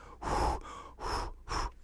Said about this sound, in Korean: 후후후네 세 번씩 숨 쉬면 되겠습니다.